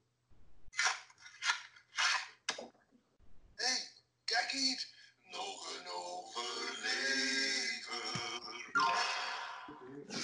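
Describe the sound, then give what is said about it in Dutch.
A voice imitates a short mid-segment jingle, not the intro jingle: a few quick percussive bursts, then a sustained, melodic, sung-like run of sound, fairly loud. “Ja, ik heb een middenjingle. Het is niet de intro jingle, het is een middenjingle.”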